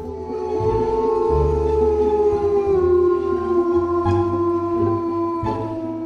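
Jackals howling in long, sustained, slowly falling tones that overlap into a continuous chorus, fairly loud and steady throughout, with a low rumbling background beneath and no talking.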